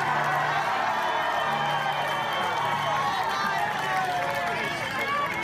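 A large crowd at a rally roars and applauds steadily, a dense wall of cheering and clapping that stays loud and constant throughout with no pauses.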